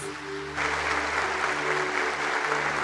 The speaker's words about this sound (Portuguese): Aplauda o Senhor. Glória a Deus.